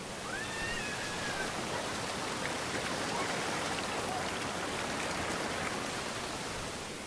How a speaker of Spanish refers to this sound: Ahora ustedes van a ver cómo suena en sitios donde es apenas un poquitico de agua lo que cae para que vean la diferencia. Me voy a acercar para que oigan la diferencia aquí.